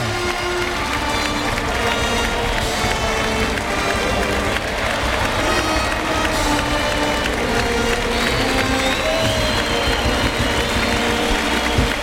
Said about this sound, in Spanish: Le toca cuando pasa aquí cerca de la banda de música. Y la fuerte ovación del público, pues lo ha celebrado con dos orejas.